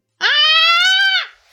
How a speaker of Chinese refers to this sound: 突然，他看到我把手伸进网去，从中捞出一个贝壳，我立刻发出一声贝类学家的尖叫，也就是说，发出了人的嗓子所能发出的最尖利的叫。